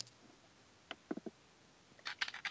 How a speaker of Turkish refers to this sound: iki tane ceviz vardı elimde. Oynadım.